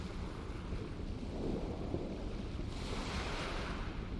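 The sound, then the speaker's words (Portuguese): Steady roar of open-sea surf mixed with gusting wind, a broad continuous wash that swells slightly midway and brightens with a hissy wave break near the end, no voices present. “Do outro lado, mar aberto, vasto, belo, violento.”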